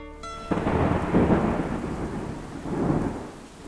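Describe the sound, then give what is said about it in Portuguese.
Heavy rain pours steadily while a deep roll of thunder rumbles and swells, fading and rising again in a broad, continuous storm wash with no voices. “A chuva e os trovões anunciavam a balada de Yansan, talvez homenageando a filha dela, que está sendo retratada aqui.”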